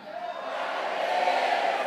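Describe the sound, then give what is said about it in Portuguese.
A crowd, standing up, shouts together in a sustained, loud cry of glory, many voices blending into a dense roar that holds steady and swells slightly for a couple of seconds. “Fica de pé e dá um grito de glória.”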